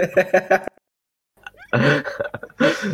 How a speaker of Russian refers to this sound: Ты че кашляешь в микрофон, алло?